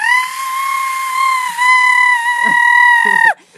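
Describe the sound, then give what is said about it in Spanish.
A voice imitates a loud scream of fright: one long, piercing, high-pitched shriek held steadily for about three seconds, then cut off abruptly. “¿cómo grito? Pues muy fuerte, la verdad, o sea, pues si nos alarmamos.”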